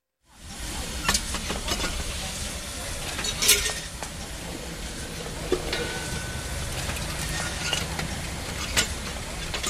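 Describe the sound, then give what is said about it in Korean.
A puffed rice (ppeongtwigi) popping machine, with rice put in its container and puffed under pressure, lets out a steady, loud rush of hissing steam. It starts abruptly and continues throughout, with a few scattered clicks and clanks over the roar. “용기에다가 쌀을 집어넣고요. 압력을 가해서 튀길 겁니다. 네, 뻥튀기요.”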